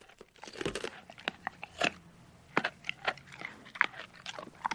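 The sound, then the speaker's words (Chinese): A small dog crunches ice cubes taken from a person's hand, producing a rapid, irregular series of sharp, brittle cracks and crunches, some louder than others, with no talking. “过了一会儿，那只狗把冰块吃进嘴里，嚼得咯嘣咯嘣响。”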